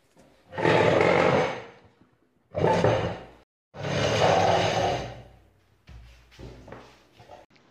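Students drag chairs across a hard floor to put them together in groups: three long, loud grinding scrapes followed by a cluster of shorter scuffs and knocks, with no one talking.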